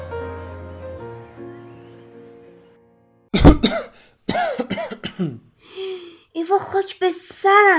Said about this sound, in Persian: دیدی بیچاره شدم سرفه کردی مامان به خدا آب تو گلوم گیر کرد سرفم گرفت